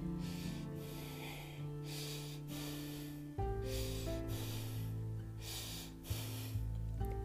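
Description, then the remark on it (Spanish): Heavy, rhythmic breathing heard over a phone line on picking up the receiver: breaths rise and fall about once a second, rasping, over a low sustained musical drone. No one speaks. “cuál va siendo su sorpresa, que al descolgar escuchó solo una respiración.”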